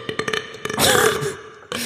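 A loud, drawn-out burp rumbles, starting with a few short gulping croaks before swelling into a long, throaty belch that trails off, with a brief voice at the end.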